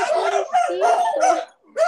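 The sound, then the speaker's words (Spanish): A neighbour's small dog whines and yelps in a rapid string of high, wavering cries, loud, with a brief pause before another whimper starts; it cries whenever the dog it lives with has an epileptic seizure. “Y el perrito que vive con él se pone a llorar cada vez que le dan las convulsiones.”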